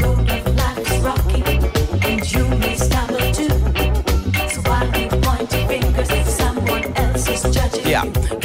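A reggae song plays at full volume, its steady off-beat rhythm and bass carrying throughout while a singer's voice rides on top of the band.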